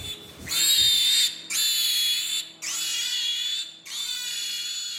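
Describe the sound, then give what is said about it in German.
Piglets squeal loudly in four long, shrill bursts, each lasting about a second with brief gaps between, set against a low, steady background hum of ventilation in a conventional pig barn under artificial light; no grunting stands out. “Kunstlicht, Grünen der Lüftung, Menschenstimmen. Schweinegrunzen, Ferkelküken.”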